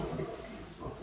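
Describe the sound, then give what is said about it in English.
A train going by: a steady, low rumbling roar with a broad hiss on top, holding at an even, fairly soft level throughout with no voices. “if you can hear that noise, it's not a poltergeist, it's a train going by.”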